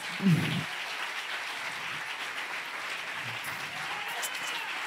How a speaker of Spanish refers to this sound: Ay, yo no sé si eso es para el aliado, si ese aplauso es